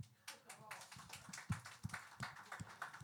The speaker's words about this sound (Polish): Teraz mogą być brawa dla was.